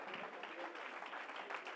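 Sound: audience clapping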